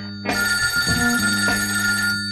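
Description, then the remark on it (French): A telephone rings with a continuous, bright metallic bell tone lasting about two seconds, loud, with no voices over it, introducing the 'L'appel du good' segment on Good Radio. “L'appel du good. Allô, j'écoute.”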